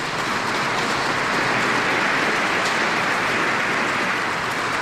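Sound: audience applauding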